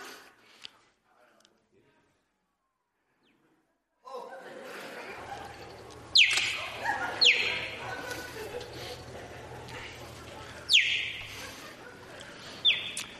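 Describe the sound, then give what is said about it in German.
A cheetah gives four sharp, high, bird-like chirps, spaced irregularly a second or more apart, clear over a steady outdoor background hiss and a low rumble. “Und, und dann hat er, dann hat er eine Raubkatz gemacht, wo nicht brüllt wie ein Leu, sondern zwitschert wie ein Vögeli.”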